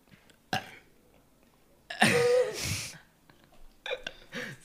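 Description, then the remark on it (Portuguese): A loud, drawn-out burp about a second long, low and croaky, with short breathy bursts before and after it and no talking. “Som do arroto.”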